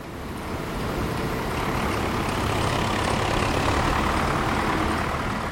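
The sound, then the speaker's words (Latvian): A steady, heavy engine drone of tractors working the fields of the Akmeņlauki farm, 1,600 hectares of stony, clayey land, rumbles on without a break, low and loud, with no voices over it. “Uz laukiem dūts traktori, bet kaltē kaltēja šā gada raža.”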